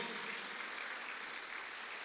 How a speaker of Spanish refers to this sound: Vamos, denle palmas fuerte al Rey de la Gloria.